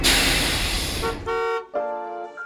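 A bus pulls up at the Ajax league championship celebration with a broad engine roar, then gives two loud, sustained honks of its horn, the second slightly longer, with no talking.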